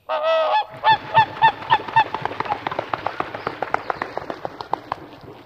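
Swan calls ring out: a long, loud honking note, then a run of bugling calls that quicken into a rapid, softer chatter of pulses, with no voices.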